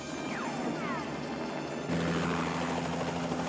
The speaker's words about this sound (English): I want to shoot at the helicopter.